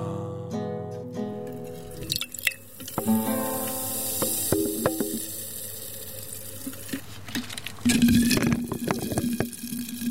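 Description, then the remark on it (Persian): Steady fizzing hiss of carbonated water, with bubbles crackling and popping throughout and a brief surge of louder effervescent sputtering near the end. “چه مزه ای داره این آب گازدار چقدر این حبابای آب گازدار شیطونن نمیتونن یه لحظه سر جاشون بمونن همش دارن بالا پای میپرن”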